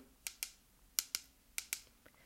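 Crisp metallic clicks of grill tongs snapping shut, coming in three quick double-clicks with short pauses between, then one faint final tap. Fairly quiet, with no talking.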